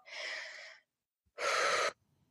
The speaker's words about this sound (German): Und um zur Ruhe zu kommen, empfehle ich vorher, upsala, zu atmen. Einfach zu atmen, so in den Bauch.